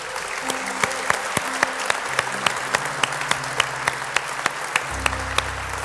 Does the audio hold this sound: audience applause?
yes